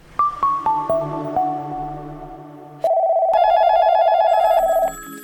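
A quick run of descending chime notes gives way to an electronic telephone ringing with a steady, warbling trill, loud, lasting about two seconds before stopping. No one speaks.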